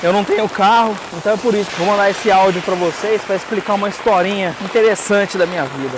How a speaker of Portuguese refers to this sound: a chuva deu uma zoada, mas deu uma atmosfera interessante para a gravação